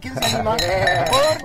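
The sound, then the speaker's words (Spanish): Glasses clink together in a toast after a meal, leaving a bright ringing tone that lingers while people talk and laugh. “¿Por qué brindamos? ¿Quién nos propone brindar?”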